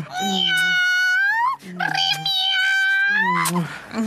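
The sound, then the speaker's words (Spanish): A female cat meows loudly, three long, drawn-out yowls in quick succession, each wavering in pitch with brief pauses between them. “¡Correte, gata de mierda! ¡Correte!”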